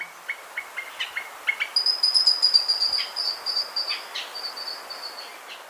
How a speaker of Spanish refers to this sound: El trino del changó de montaña forma parte del Banco de Sonidos de Aves Colombianas recopilado por el Instituto von Humboldt y la Universidad de Cornell.